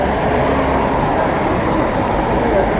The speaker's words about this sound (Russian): Он, видимо, экранирует эти звуки проезжающего транспорта. А прямо передо мной, там, в э, пяти метрах, все это ездит. Вот сейчас мотоцикл, мотоцикл Заглушил меня окончательно.